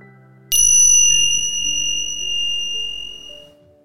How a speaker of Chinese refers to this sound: 练习即将结束，如果你准备好了，听到铃声就可以张开眼睛。